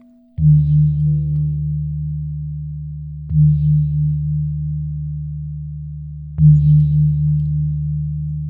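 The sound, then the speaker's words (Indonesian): A gamelan gong is struck three times at a slow, even pace, each stroke a deep, loud, humming tone that rings on steadily until the next hit. “Dan komodo main gong.”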